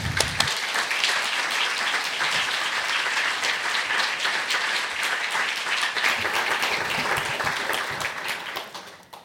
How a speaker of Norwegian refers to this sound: Men først nå, altså, klapper vi for Tove og får henne opp på scenen.